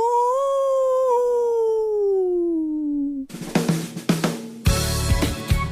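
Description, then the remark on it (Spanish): A single long, mournful wolf howl that slowly slides downward in pitch for about three seconds, loud and clear, then cuts abruptly into busy, percussive music. “El hombre lobo. ¡Aú!”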